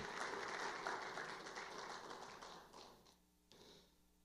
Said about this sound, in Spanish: Quieren un aplauso al Señor por esto.